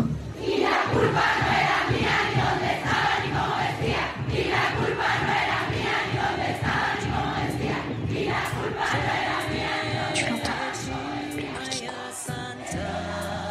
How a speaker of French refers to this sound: tu l'entends La gronde des femmes